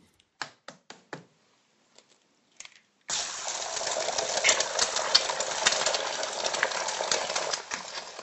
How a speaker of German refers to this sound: Ja, da sieht man schon, wie das Ei dynamisch sich der Pfanne annimmt und die Hitze aufnimmt in sich vereint und ah, das zweite Ei haben wir jetzt auch noch dazu genommen.